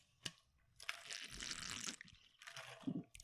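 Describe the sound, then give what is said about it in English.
Liquid sloshes inside a water bottle in two short bursts of splashing and gurgling, with a sharp click at the start and no voices. “Oh, I got a water bottle that uh, doesn't sound like a water bottle, and I tried to make it.”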